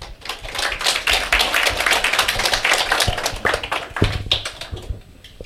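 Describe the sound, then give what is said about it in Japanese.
An audience at an investor-relations seminar in Sapporo applauds steadily to welcome the chairman and president of Shinpro Mente, many hands clapping in a dense, continuous patter that holds for several seconds before thinning out into scattered claps near the end. “どうぞ皆様大きな拍手をお願いいたします”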